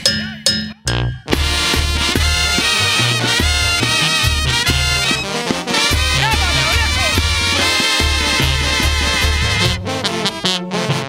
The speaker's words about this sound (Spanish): Este es un cover, pero se lo dedicamos con todo cariño porque también lo sentimos. Dice y suena así.